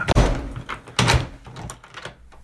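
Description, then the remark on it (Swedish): A badly damaged apartment front door on Södermalm is forced open: two loud, heavy thuds about a second apart, each followed by scraping and rattling as the stiff door grinds against its frame. “Dörren är helt förstörd så det går inte knappt öppna det liksom.”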